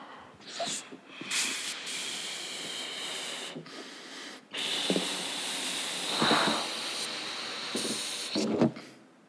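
Someone blows up a balloon by mouth, with several long, breathy pushes of air separated by short pauses for breath, fairly loud, with no talking.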